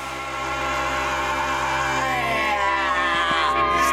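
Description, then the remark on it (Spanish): Loud, dense music rises into a strained, wavering, desperate scream that ends the song, soaring and bending over the final seconds, sustained and raw above the thick instrumental wash. “Toda canción que termine con un grito desahuciado está bien.”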